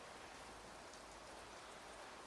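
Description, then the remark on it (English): Steady rain pours down on a grey day in Treviso, northeast Italy, in a dense, even hiss that holds constant from start to finish, with no voices or other sounds breaking through. “And it's a rainy, grey day in Treviso in northeast Italy.”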